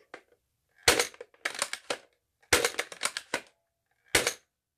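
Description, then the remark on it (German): A toy foam dart blaster with a rotating drum magazine fires: sharp, loud mechanical bursts, some single shots and some in quick clusters of clacks, separated by short silences, with no talking. “Guck, man kann Einzelfeuer machen.”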